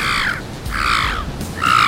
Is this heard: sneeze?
no